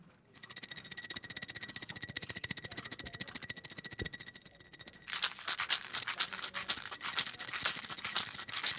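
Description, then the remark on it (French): Plastic olive picks shaken in a fast, steady rattle of dense clicks, turning louder and harsher about halfway through. No one speaks. “Et là, je vais vous faire euh, le, son, le, je n'oserais pas, dire le, bruit, la, musique, la musique des pics à olive”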